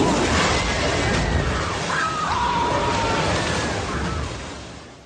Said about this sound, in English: That was the sound of Samuel L. Jackson being eaten by a shark.